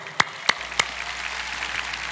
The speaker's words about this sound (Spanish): Y quisiera darle la bienvenida al programa Lo Sobrenatural ahora. ¿Le damos un aplauso?